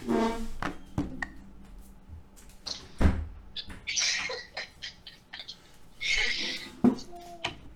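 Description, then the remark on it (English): A door is shut and locked: several sharp thuds and metallic clicks spaced a few seconds apart, mixed with rustling, creaking and brief high squeaks. “So, so I had to close it and lock it.”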